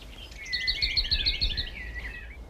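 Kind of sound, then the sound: bird, common whitethroat singing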